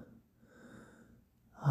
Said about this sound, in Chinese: 你整个人趴在我的身上，我们在彼此的耳边不停的喘息